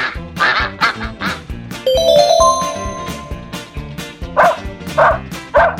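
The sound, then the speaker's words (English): A dog barks repeatedly in quick, loud bursts, with a short tonal squeal rising in the middle before the barking picks up again. No one speaks. “It chased away a dog and a cat.”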